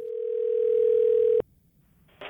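A steady, droning telephone dial tone from a recorded restaurant phone call that Grubhub charged for holds for about a second and a half, then cuts off abruptly, leaving faint line hiss before a short burst of noise at the end.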